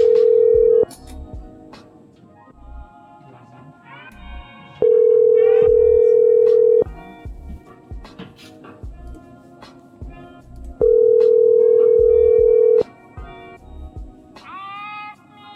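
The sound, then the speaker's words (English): A telephone ringback tone repeats three times, each steady, buzzing ring lasting about two seconds with long pauses between. Faint background clatter fills the gaps, and nobody picks up. “These people want their money, but not badly enough to answer a phone call.”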